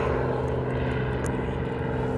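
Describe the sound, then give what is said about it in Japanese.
A steady, droning helicopter rotor and engine roar at a heliport, while waiting in line for a helicopter ride, fills the whole stretch, loud and unbroken, with a low humming undertone and no voices. “ヘリコプターに乗るんですが順番待ちをしておりまして、えー、その間にちょっと収録を取りますでですね”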